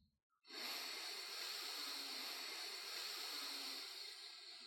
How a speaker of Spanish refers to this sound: Guíate por el sonido de mi respiración. Tomamos aire por la nariz.